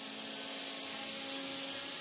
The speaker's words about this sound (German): Den Großteil übernehmen die Maschinen, aber es muss immer noch händisch nachgearbeitet werden. Also Zwecks Verschleifen oder Lackieren, Härten, alles noch mit dabei.